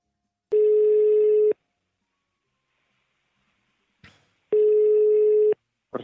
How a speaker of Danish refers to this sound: Øh, altså, det har en lille, en lille snip med fra, hvordan det lød, da jeg, da jeg ringede til Finland.